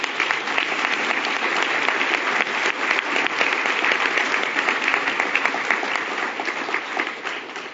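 An audience applauds steadily, a dense, even wash of many hands clapping at once that holds at a fairly loud level for several seconds before beginning to thin out at the end.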